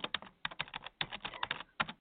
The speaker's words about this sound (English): Just a couple clicks, a little typing.